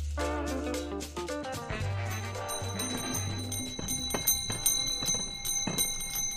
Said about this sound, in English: It's that season when ice cream cart bells ring across Chicago sidewalks, parks, and beaches.